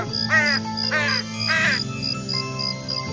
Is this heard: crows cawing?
yes